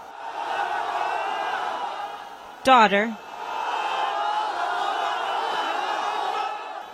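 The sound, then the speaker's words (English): A crowd in Syria shouts and cheers steadily as emergency responders bring a family out one by one in a rescue, a dense mass of raised voices, broken briefly in the middle by one loud voice calling out a single word. “Just watch the crowd's reaction as they bring them out one by one.”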